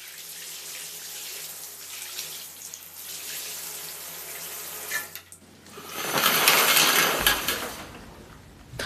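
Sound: shower water running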